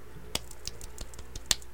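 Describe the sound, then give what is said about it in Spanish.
A sharp, crisp hand clap rings out alone near the end, preceded by another snap-like clap and a few fainter scattered clicks; no one speaks. “Y nada, eh, voy a dar un aplauso.”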